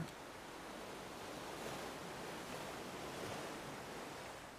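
Ocean surf washes in a steady, hissing roar with gentle swells as waves break, fairly soft and continuous throughout, with no voices.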